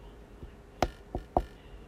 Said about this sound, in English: She'd just be like, she'd knock, obviously, but she it'd be a soft knock. She she does one of those like